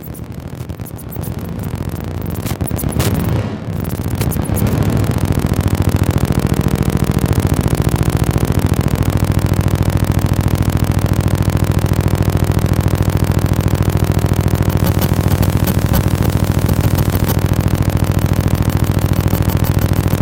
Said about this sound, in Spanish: nada más un dictaphone, que son estas grabadoras este, viejitas. Y con eso puedo entonar eh, diferentes frecuencias de, feedback y hacer diferentes este, efectos con, con la voz y con, la boca. ¿no? no siempre son este, vocales, a veces son bucales.